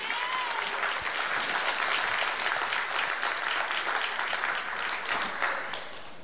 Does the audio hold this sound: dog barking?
no